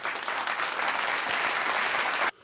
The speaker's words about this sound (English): Let's uh, let's all give uh, uh, Rob Van Hoff a, a nice round of applause.